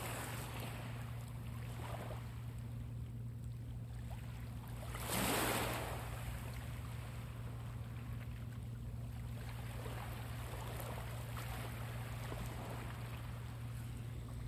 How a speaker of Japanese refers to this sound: というわけで今回は近くの海岸に来てみた回でした最後にちょっと波の音をお伝えしますね。